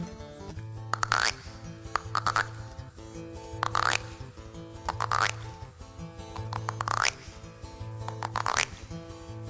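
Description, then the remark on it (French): Frogs croak in a steady, repeating rhythm, about one twangy call every second, clear over a low, pulsing background hum, with no one speaking. “Eh bien, ce petit garçon, il s'assoit sur un tronc d'arbre et il écoute les grenouilles.”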